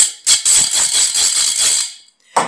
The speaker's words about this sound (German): Ich habe mir vor einigen Jahren in Jerusalem einmal einen Purim-Kit gekauft. Das war eine Tüte mit einem Gummiband, die man dann auch als Clownshut nutzen konnte. Die war gefüllt mit Süßigkeiten und einer kleinen Ratsche, die klingt so.